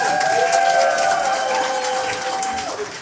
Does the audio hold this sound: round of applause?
yes